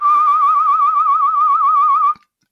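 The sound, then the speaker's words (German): A single loud whistle, imitating a staring pigeon, holds one steady pitch with a fast, wavering warble for about two seconds, then cuts off into silence. No one speaks. “Wichtig ist, dass dieser Pfeifer dann nochmal mit einem Zusatzpfeifer ähm, gedoppelt wird, dann klingt es noch lustiger.”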